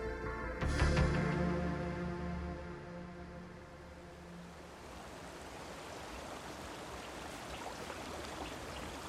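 River water flows in a steady rushing wash that fills the whole stretch, following a brief tonal sound that fades out near the start, in the Marange diamond fields of eastern Zimbabwe in November 2008, where a diamond digger stands hip-deep washing sand with a wooden sieve; no one speaks.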